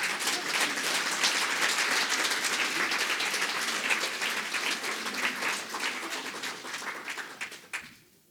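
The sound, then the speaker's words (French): An audience applauds its elderly members, many hands clapping in a dense, sustained wash that holds fairly loud for about seven seconds before thinning to a few last claps and fading out. “Est-ce qu'on peut donner juste une main d'acclamation pour toutes nos têtes blanches?”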